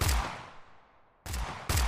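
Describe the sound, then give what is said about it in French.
Three loud gunshots ring out: one with a long echoing decay, then two more in quick succession about a second later. No one speaks. “Vous entendez des coups de feu.”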